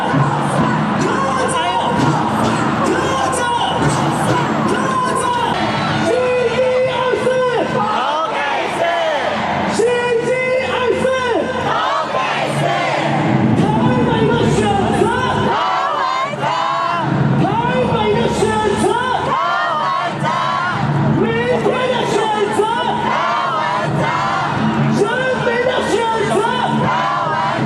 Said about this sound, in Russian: Так тайваньцы кричат в поддержку своего кандидата КВНЖ и говорят, кого выбирает Тайбэй, КВНЖ, кого выбираем завтра, КВНЖ, кого выбирает народ, КВНЖ.